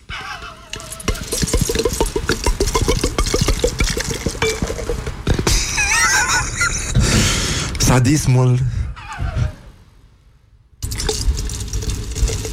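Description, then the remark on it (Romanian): Sparkling wine is poured into a glass, a gurgling splash followed by a fizzing, crackling hiss of bubbles, while people talk over it. “Auzi, auzi, auzi, bulele, bulele, bulele.”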